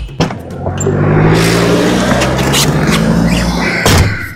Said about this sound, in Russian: Что еще раздражает? Вот выходит из твоей машины и как? Как шлепнет дверь, да?